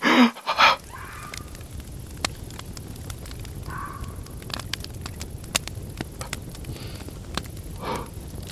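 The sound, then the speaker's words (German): In the video game The Long Dark, a brief scratchy flare of a fire being lit, then a small campfire crackling steadily with scattered sharp pops over a soft, constant hiss. No one speaks. “So, sollte Feuer machen.”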